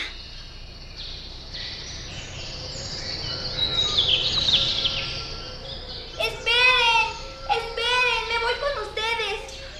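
A dense wash of high chirping and twittering from a flock of blue birds in flight grows louder, then clearer, sharper calls ring out close by in quick repeated bursts.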